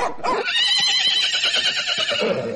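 A horse whinnies once, loud, a high shrill neigh that quavers and shakes for a couple of seconds before trailing off, with no other sounds around it.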